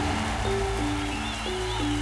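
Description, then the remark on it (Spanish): Light rain hisses and patters steadily at a concert in Asturias while sustained musical notes drift over it, stepping between a few held pitches, like instruments playing outdoors in a drizzle. “Fíjate esto, en un concierto en Asturias, ¿eh? lloviendo un poquito.”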